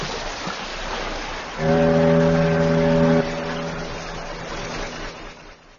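A ship's horn sounds one loud, steady blast lasting about a second and a half, rising out of a constant low rumble of engine and water noise that continues after it stops.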